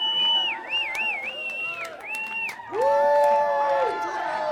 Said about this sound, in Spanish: Un aplauso y una porra muy especial para los hermanos Karamazov.